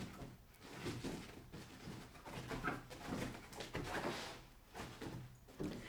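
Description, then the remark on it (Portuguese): A female dog turns seven circles and paws at its bed to make a nest, making repeated soft rustling and scratching bursts of fabric every second or so, with no one talking. “Temos um cão a dar sete voltas na cama neste momento.”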